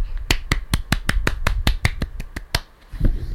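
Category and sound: crowd, clapping hands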